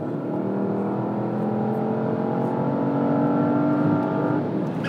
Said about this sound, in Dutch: En van binnen is dit dan nog een redelijk beschaafde V8-brul, maar van buiten klinkt het echt alsof, nou ja, een luchtmacht, ik zal niet zeggen welke, een inval doet op de plek waar jij op dat moment bezig bent.